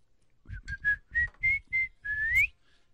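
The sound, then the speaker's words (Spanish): A man whistles a short, bright melody of about seven quick notes, ending with a rising slide, clear with no talking. “Eh, eh, chiflo, chiflo mucho.”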